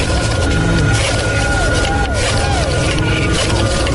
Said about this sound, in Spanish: ¿Recuerdas el sonido de tu modem conectándose a internet?